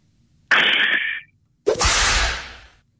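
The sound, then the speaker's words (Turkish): A person vocally imitates a whip crack twice: first a hissing, sustained 'tsss' lasting under a second, then after a pause a sharper burst trailing into a breathy swish, loud. “Ee, kırbaç sesi kırbaç.”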